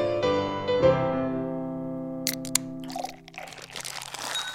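A sustained musical tone fades out, then a couple of sharp clicks like a beer being opened, followed by a steady fizzing, splashing pour.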